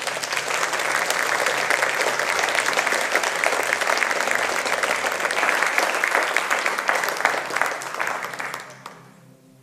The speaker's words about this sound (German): Und lassen Herrn noch einen Applaus geben, wenn er das macht.